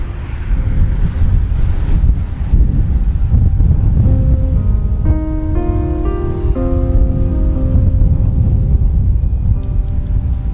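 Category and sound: nature, strong wind blowing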